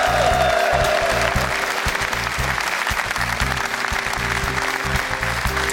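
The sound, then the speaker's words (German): A studio audience applauds steadily, a dense wash of clapping with scattered cheers that holds at a loud, even level throughout, with no talking over it. “Stimmung passt auf jeden Fall hier und das wird jetzt nicht abebben, sondern vielleicht sogar noch mal ein bisschen lauter werden.”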